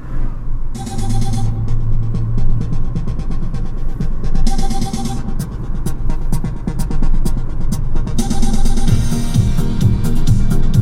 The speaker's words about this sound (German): Alter, ey, was war das denn gerade? Ich glaube, das Auto gerade ist mit Holzkohle gefahren oder so. Alter, jetzt Straße voller Nebel hier.